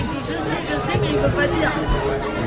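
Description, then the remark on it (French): A studio audience calls out at once, a loud, dense overlapping babble of many voices shouting suggestions, filling the whole moment without a single clear speaker. “Ah il y a le public qui nous dit.”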